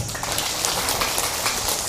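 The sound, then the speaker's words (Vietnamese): A steady burst of applause from a crowd: dense, crackling hand claps blur into a continuous wash of noise that stays loud and even for the whole two seconds, with no voices over it. “cho một tràng pháo tay thật lớn nào”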